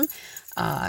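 A short rattling clatter as belongings are set down, a brief jangly burst lasting under half a second after a quiet moment.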